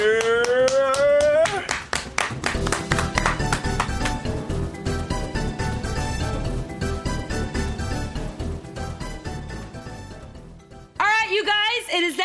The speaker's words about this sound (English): Let's please put our hands together